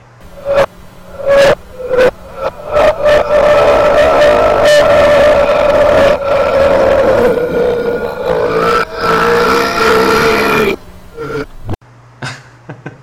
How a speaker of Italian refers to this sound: Ah, eh, scusa, giusto per chiudere in bellezza, mettiamo, sì. di, anzi 12 secondi di Rutti al contrario.